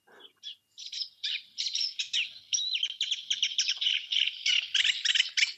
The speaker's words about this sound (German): Achtung, der Teichrohrsänger.